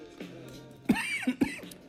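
human body sound, coughing fit

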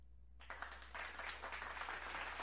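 crowd, audience clapping

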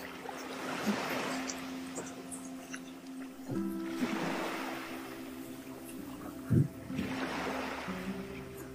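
nature, sea waves

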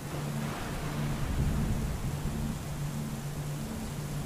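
nature, thunder rumbling

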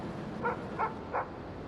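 animal, dog barking

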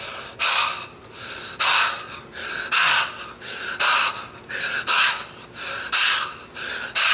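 human body sound, heavy deep breathing

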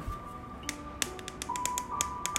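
human body sound, one person clapping hands

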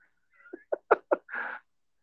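animal, cat meowing

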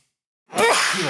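human body sound, sneeze

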